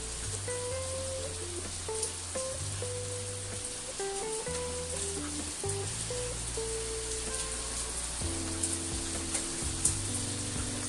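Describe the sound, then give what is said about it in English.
Steady rain falls at 1 a.m. on 6 October in Uttarakhand in a continuous, even hiss with faint scattered drips, while a soft, low melodic tune plays underneath. No one speaks. “it's 1 a.m 6th of october and i am in a place which i cannot pronounce for the life of me in uttarakhand seeing the rains enjoying the weather”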